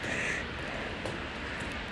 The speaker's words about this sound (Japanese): さっきまでねカラスがねすごい勢いでわーわー言っていてでももうどっか行っちゃったみたいで